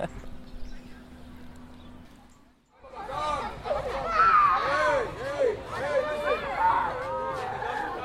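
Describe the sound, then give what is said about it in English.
After a few seconds of low, steady background hum, a dense crowd swells in at Moria Refugee Camp on Lesbos, holding about 15,000 refugees, many in tents in olive fields: many overlapping voices chattering and calling at once, a busy outdoor hubbub that stays loud to the end. “This is the sound of Moria Refugee Camp, a refugee camp with a capacity just shy of 3,000, but currently holding about 15,000 refugees.”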